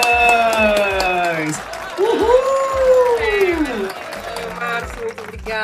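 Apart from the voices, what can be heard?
applause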